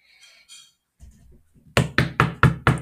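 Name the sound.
knocking on a door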